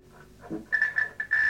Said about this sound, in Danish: Men I bruger øh, specielle instrumenter til det, og dem har I nogle af stående her i lokalet. Skal vi prøve lige at kigge på dem? Ja. Øh, det er en, vi kalder UFO-detektor eller en UFO-alarm.